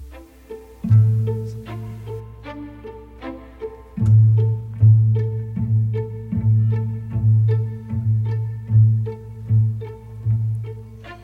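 A slow French chanson plays on Radio Campus Tour, opening with deep, steady bass notes pulsing at an even pace, growing fuller after a few seconds, with no voice yet.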